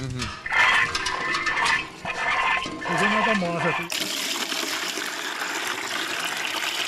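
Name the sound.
water running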